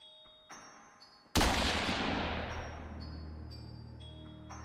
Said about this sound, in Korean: 귀를 먹먹하게 만드는 총소리.